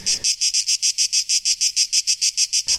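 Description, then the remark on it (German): A loud, shrill chorus of a large cicada population pulses in a fast, steady rhythm of about eighteen buzzing bursts, intense, with no voices present. “Also unheimlich laut ist zum Beispiel, wenn man eine große Zikadenpopulation hat, die richtig am Singen ist.”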